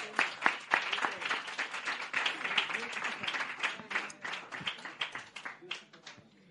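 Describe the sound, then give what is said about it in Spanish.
Loud applause from a crowd at a slam competition after the scores are read, dense rapid clapping with voices shouting and cheering underneath, carrying on steadily for several seconds before thinning out toward the end. “Aplauso fuerte.”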